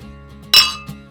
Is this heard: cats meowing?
no